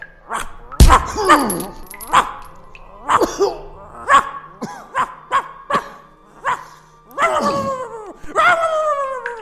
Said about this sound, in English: Will somebody shut that dog up?